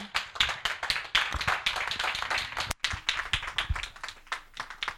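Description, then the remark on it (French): A crowd of people, standing, claps together in praise of God for the life of His servant, a dense, steady stream of sharp hand claps with a loose rhythm that carries on for the full five seconds with no voices. “On va acclamer Dieu pour la vie de son serviteur,”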